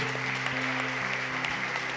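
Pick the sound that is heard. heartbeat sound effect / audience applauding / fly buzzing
audience applauding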